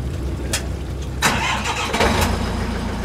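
A high-pressure washer, just imported from Japan and used to wash live scallops, starts on a boat docked on Portland's waterfront in Casco Bay, Maine; its motor catches partway through and settles into a loud, steady mechanical drone, with brief clattering bursts as it starts up. No one speaks.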